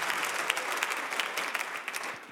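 A church audience breaks into steady applause for God after a prayer, many hands clapping in a dense, even wash of crisp slaps with a few sharper claps standing out, sustained without any talking.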